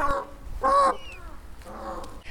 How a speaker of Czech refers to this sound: Tak ten zvuk, který teď slyšíte, tak to je zámecká pávice, která se teď prochází po nádvoří pardubického zámku.